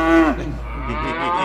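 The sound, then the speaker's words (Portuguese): A cow lets out a single long moo, loud and low with a rich harmonic tone, starting strong and then sliding into a rougher, drawn-out bellow. “As vacas têm sotaque, Seu né? mugido é diferente em cada região.”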